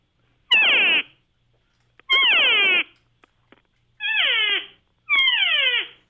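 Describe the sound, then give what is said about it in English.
Four loud, harsh, nasal calls from a mouth-blown open reed game call imitating a cow, the reed pressed against the soundboard and lips moved to change its length, each sliding from a high note down to a low one, evenly spaced, recorded about one inch from a phone, with no talking. “it's an open reeded call, and you're putting the reed in your mouth and pressing it against the soundboard”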